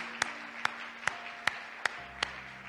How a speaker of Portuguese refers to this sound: Dê um aplauso a Cristo uma vez mais.